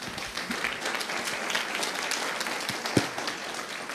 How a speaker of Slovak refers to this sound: Veľkým potleskom a privítajte.